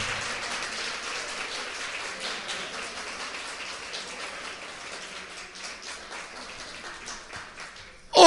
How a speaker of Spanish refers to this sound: Y démosle un aplauso a ese Cristo Jesús que nos da la victoria.